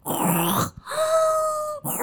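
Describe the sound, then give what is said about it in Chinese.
A voice imitates the snoring of a sleeper with sleep apnea: a rough, raspy snort, a brief catch of silence as the breathing stops, then a strained, steady nasal moan like a choked breath, ending with another short rasp as the sleeper startles awake. “我们以前呢、啊，对于这个的想象，大家就可以想象是看电视、看电影的时候，嗯、就有人睡觉一直在打呼，然后呼吸呼吸，哎、嗯，突然好像停住，然后突然被吓醒，”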